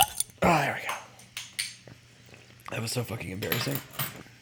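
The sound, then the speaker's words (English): A beer can cracks open and a beer bottle pops, two sharp bursts with a brief fizzy hiss and clinking, followed by people talking. “that is the sound of a couple brews, one being cracked, one being popped”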